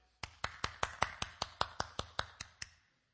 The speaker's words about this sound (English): He clapped. And instead of, I fell, I'm gonna cry, she looked up, kind of shocked, and got up.